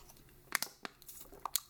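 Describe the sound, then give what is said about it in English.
A quick swig from a plastic water bottle: a handful of sharp, crinkly crackles as the bottle flexes, irregular and moderately loud, with no talking. “Had to swig the water one time for the working man, like uh, Stone Cold said.”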